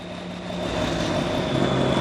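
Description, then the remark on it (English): A race car's V6 engine at an IMSA race at Sebring grumbles unhealthily in a steady, rough drone with a low hum and a faint high whine, growing slightly louder over two seconds, with no voices. “I am not an engineer, but that didn't sound like a healthy V6 engine to me.”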